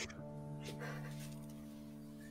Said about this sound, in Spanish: lo que escucháis ahora es el sonido de los lobos en mitad del bosque.